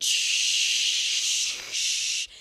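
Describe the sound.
A voice imitates an Axe body spray aerosol can with a long, loud, steady hiss, briefly breaking once before a second burst that cuts off abruptly. No other sounds or talking.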